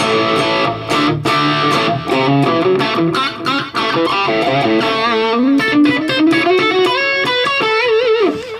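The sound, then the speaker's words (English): A crunchy, mildly overdriven electric guitar plays chords and single-note lines through a Marshall JMP amp on its stock sound, preamp set to eight, with the Analog Man KOT pedal off, fairly loud, with a steady rhythmic strumming pattern and no talking. “This is kind of the stock sound of the Marshall.”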